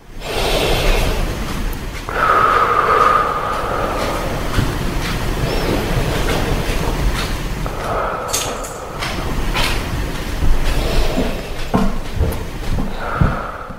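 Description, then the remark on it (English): Several slow, deep breaths taken while sitting, as part of a breathing exercise, each a loud, airy rush of inhaling and exhaling with a rough, noisy texture, repeating steadily with no talking. “So you do you take and you just take ten deep breaths.”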